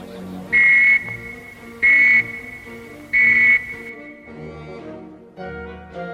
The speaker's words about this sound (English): Or you may hear three whistles, like this.